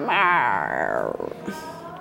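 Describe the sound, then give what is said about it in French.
A person mimics a cat with one long, drawn-out meow that slides downward in pitch, fairly loud, fading into soft breathy sounds. “Et des chats qui font, qui s'étirent comme ça.”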